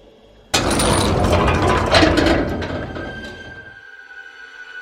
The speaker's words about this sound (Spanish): Se oyó un fuerte estruendo. La puerta se había cerrado.